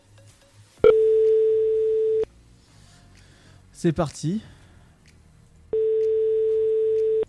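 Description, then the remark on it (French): A phone's ringback tone sounds twice as a call to a guest is placed live on air on Dynamique radio around 21:15: two long, steady mid-pitched beeps separated by a few seconds, with a brief spoken phrase in the gap between them. “Eh bah écoute, on va l'appeler.”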